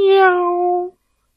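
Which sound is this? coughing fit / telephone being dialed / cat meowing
cat meowing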